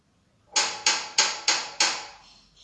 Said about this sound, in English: He knocked on the castle door.